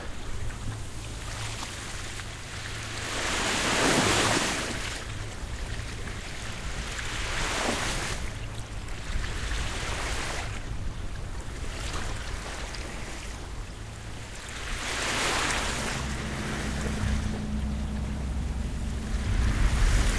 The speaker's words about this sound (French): Homer nous dit qu'on entend seulement le, bruit de la mer retentissante, des vagues qui viennent euh, s'écraser sur le sable. Et c'est sa solitude à ce moment-là qui fait qu'il est seul face à cette rumeur, euh, à cette, ce bruit de la mer.